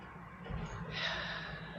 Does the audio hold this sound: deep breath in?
yes